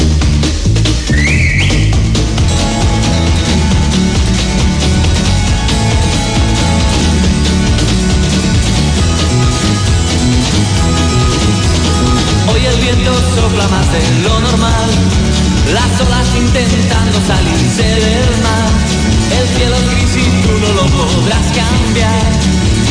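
A loud, dense rock song intro from the Madrid movida scene plays throughout, with a whistled melody riding over a steady beat of drums and bass; no singing or talking comes in.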